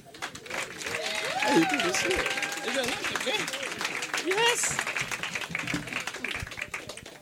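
An audience applauds steadily for several seconds to welcome the opening performer of a free evening show, a dense wash of clapping with cheers and whoops rising above it, holding loud throughout before easing slightly at the end.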